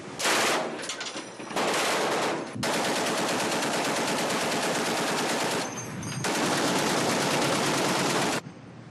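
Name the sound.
gunfire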